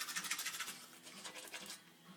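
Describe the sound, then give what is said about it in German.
Rapid, rhythmic scrubbing of a toothbrush against teeth, a bright bristly hiss pulsing in quick back-and-forth strokes, with no one speaking. “Testheraufnahmen beim Zähneputzen.”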